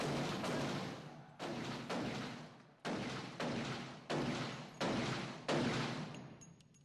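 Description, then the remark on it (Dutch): A string of about eight loud gunshots fired into the air, each cracking sharply then rolling off in a long echoing tail, fired at uneven intervals close together with no voices. “Een tijd lang gebeurde helemaal niets, behalve af en toe wat schoten in de lucht.”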